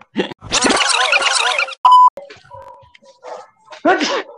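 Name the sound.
sneezing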